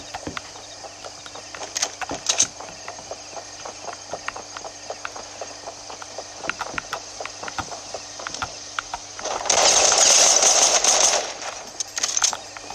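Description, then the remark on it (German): Video game assault rifle gunfire: scattered sharp, clicky shots throughout, then a loud, dense burst of rapid automatic fire lasting a couple of seconds near the end, with no voices. “Ich hab nur noch neun Schuss für AR.”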